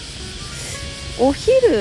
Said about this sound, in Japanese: 今日はめちゃくちゃセミナー行ってますよね多分時間帯が今日は早いちょっと朝早い時間帯に、えー、散歩してるのでなのでセミがめちゃくちゃ泣いてます